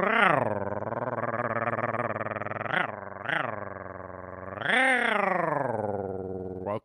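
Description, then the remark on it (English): A person's voice imitates a cat's purr, producing a sustained, rough, rumbling drone that sounds like an outboard motor, a Johnson 6.5 horsepower on an old bass boat. It runs loud for several seconds, with a few brief rising swoops. “I sound like an outboard motor. I did not sound like a purring kitten.”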